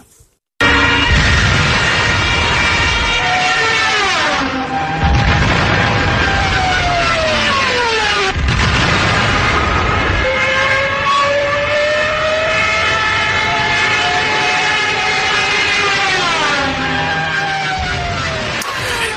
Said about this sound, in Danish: Ja, som nogen sikkert kan høre, så er det det tyske bombefly, jægerfly Stuka, som øh, nu bomber her.